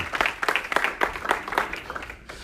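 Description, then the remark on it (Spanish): An audience applauds for Jesus, a steady burst of many hands clapping at moderate volume, with a few faint voices mixed in, fading slightly at the end. “Dar un aplauso a Jesús.”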